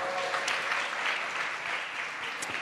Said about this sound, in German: Super, ein Applaus für unsere beiden Bingo-Gewinner.